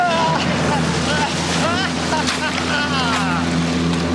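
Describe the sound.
A motorboat engine drones steadily and loudly throughout as the boat is steered towards border soldiers, with rushing wind and water noise, while voices shout intermittently over the roar.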